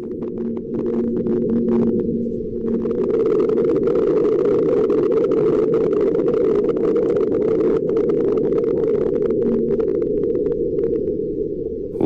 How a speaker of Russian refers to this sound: Ну, на самом деле, здесь большая часть звуков, это вот этот вот скрежет, который вы слышали, это звук работы самого марсохода, но он записал «Марсианский ветер»